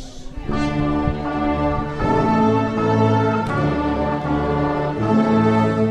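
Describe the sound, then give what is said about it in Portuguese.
A youth symphony orchestra of young people from the Escola Miguel Torga in Casal de São Brás, Amadora, plays a full, sustained passage, with rich chords shifting every second or so at a steady, fairly loud level and no voices over the music. “Este é o som da Orquestra Geração.”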